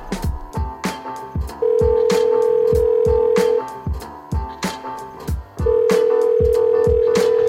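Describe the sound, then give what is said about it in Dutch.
A phone line's ringing tone sounds twice as a call is placed, each a long steady electronic buzz of about two seconds, over a rhythmic beat of background music, with no one speaking. “zal ik anders gewoon bellen”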